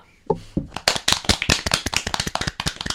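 A group of people breaks into applause, many sharp, irregular claps building quickly after a brief low tone and then continuing steadily and fairly loud with no speech.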